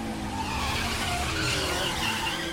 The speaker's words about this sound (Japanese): バックナムはブレーキを踏みながら次のコーナーに高速で入る目の前には現在10位の車が見えている